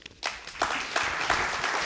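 Audience applause breaks out, a dense patter of many hands clapping that swells quickly and holds steady at a moderate level with no voices, at the end of a speech opening a symposium day.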